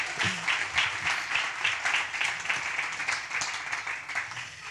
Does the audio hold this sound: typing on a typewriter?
no